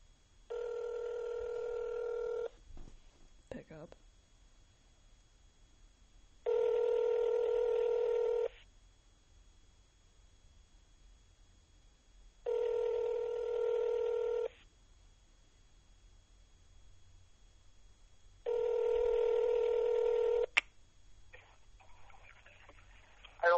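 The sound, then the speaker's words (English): A phone call placed from a phone rings out: four steady ringback tones, each about two seconds long, separated by pauses of several seconds, heard through a phone line, with a brief click near the start and no one talking. “Yes, we're going to call him right now. going to call him. How do we call him, you may ask? On my phone.”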